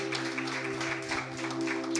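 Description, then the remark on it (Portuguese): Audience applause for Jesus: a dense, steady wash of many hands clapping that holds an even level for the whole stretch, with a faint low tonal hum running underneath. “Vamos aplaudir Jesus por isso?”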